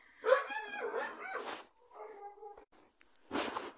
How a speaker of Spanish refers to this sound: O sea, este perro de mierda.